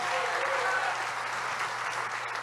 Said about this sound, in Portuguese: Você pode aplaudir melhor Jesus, porque Ele que te fez o convite.